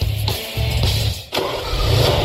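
A car engine cranks in short bursts, then catches and settles into a steady, fairly loud running rumble. No one speaks.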